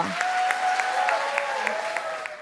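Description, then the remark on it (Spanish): A crowd claps steadily and enthusiastically for the Lord, a dense wash of many hands applauding, with a few sharper claps standing out and no clear talking. “Yo sé que ustedes, me pondría de pie y aplaudiría al Señor con todo.”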